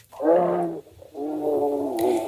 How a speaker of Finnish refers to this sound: Ja sitten mietin, että voiko se olla, tiedätkö, karhu?